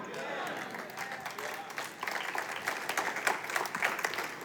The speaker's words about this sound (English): Yeah, when I wrote that, I thought they might clap at that one. I'm trying to get you guys to be more better clapperers.